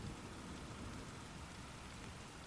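Steady rain patters against a window, a dense, even wash of tiny droplet taps with no pauses, soft, with no voices.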